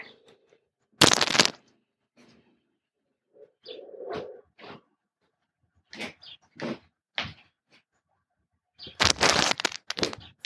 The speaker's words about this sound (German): Okay, aber sonst, äh, ich mache mal kurz Fenster zu. Eine Sekunde.